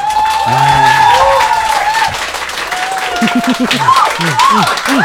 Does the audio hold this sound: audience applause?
yes